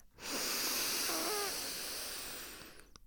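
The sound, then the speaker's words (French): A single long, deep inhalation taken as deeply as possible during a breathing exercise, lasting nearly three seconds, a broad airy hiss with a faint wheezy, whistling edge, steady and fairly loud before trailing off. No one speaks. “Et quand tu inspires, monte tes épaules, gonfle ton corps, prends tout ton élan pour avaler tout l'air possible.”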